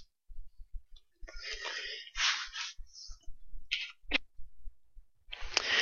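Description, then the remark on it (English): Several soft, papery rustles and flips of Bible pages being turned to Matthew chapter 15, scattered irregularly, with faint low thumps underneath and no talking. “Still hear pages turning.”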